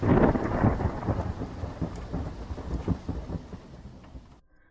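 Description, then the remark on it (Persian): Steady rain pours down with a deep rumble of thunder rolling underneath, loud at first, then easing off before cutting to silence at the end. “به قول شاهروخ مسکوب چه لذتی دارد از فردای نیامده نترسیدن گوش به باران دادن چای درست کردن پادشاه وقت خود بودن”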